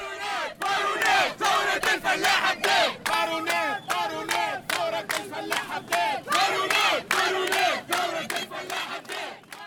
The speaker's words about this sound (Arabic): الحشد يرفع في شعارات على الطريق خلطوا تلامذة على المسيرة وفلاحين من البلدات القراب